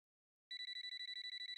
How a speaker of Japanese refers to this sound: 黒田の携帯が鳴った